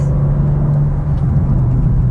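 A loud, steady low engine rumble from an M2 sports car, its exhaust burbling when downshifting or lifting off the throttle, continuous throughout with no talking.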